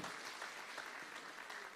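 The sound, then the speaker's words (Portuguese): A church audience claps together for the Lord after a Bible verse, in steady, dense applause, a continuous crackling wash of many hands with no voices standing out, holding at an even level throughout. “Você pode dar uma salva de palmas ao Senhor por esse versículo, dizendo: Deus, por isso que eu te sirvo.”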